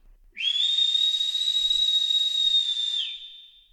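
A single long, high whistle holds one steady pitch for nearly three seconds, thin and piercing with a faint airy hiss, then slides off and fades out. No voices.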